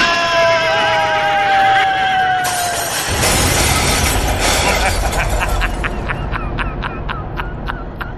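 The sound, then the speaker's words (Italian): Horses pulling a vehicle whinny shrilly in panic, out of control as it leaves the trail, their cries sliding downward, then a loud crash bursts in, followed by a rapid run of sharp clattering knocks that trails off. “I cavalli sono impazziti! Non li tengo più!”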